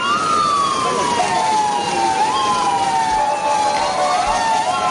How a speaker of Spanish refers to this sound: Este sonido de las ambulancias de la media luna roja que han trasladado ya a Egipto a unos 40 heridos.